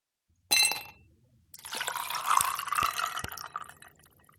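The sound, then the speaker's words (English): A short clink, a brief pause, then liquid poured steadily into a glass for about three seconds, splashing with the pitch rising as it fills. No one speaks. “And now, let's pour ourselves a conversation.”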